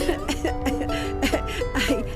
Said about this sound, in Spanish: Está sentada tomando el sol. Tose porque tiene cáncer en su pulmón izquierdo.